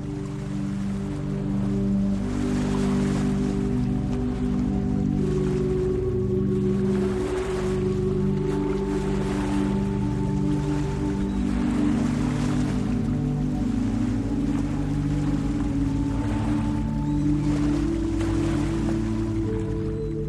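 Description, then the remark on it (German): Ocean waves roll in and wash onto a beach in slow, repeating surges, blended with a steady, soft musical drone underneath. No one speaks. “Die Wellen des Ozeans rollen an den Strand und erzeugen ein beruhigendes Rauschen.”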